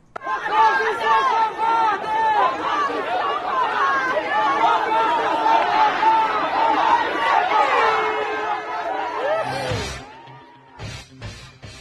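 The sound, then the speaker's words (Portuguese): A dense crowd clamors outside a city council chamber while a council session is under way, many overlapping voices shouting and chattering loudly and continuously, with a few sharp knocks and bursts as the noise thins out near the end. “Eu separei só um trechinho aqui pra gente ouvir de como era que tava o clima do lado de fora da Câmara enquanto a sessão rolava.”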